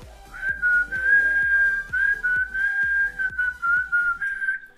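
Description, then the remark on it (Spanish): Someone whistles the lively opening theme of an anime, a clear, steady tune with sustained and shifting notes over a rhythmic thumping backing beat, fairly loud, with no talking. “va por la calle y va silbando el el opening de Kimetsu no Yaiba”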